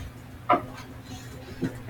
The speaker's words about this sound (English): She's playing with our dog. I have two pit bulls. So oh, okay. They're happy right now. Because mommy is home.